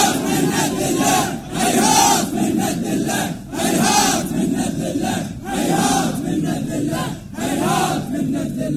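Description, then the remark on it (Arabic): A large crowd in a mourning procession chants the cry of Imam Husayn, "Hayhat", in unison. The loud repeated phrases rise and fall in a steady rhythm with short gaps between each shout. “ولكنه رغم كل ما أصابه من ظلم من فساد من فجور نادى صرخته الواحدة التي لا تتكرر ونحن نصرخ صرخة الحسين هيهات من نزل الله هيهات”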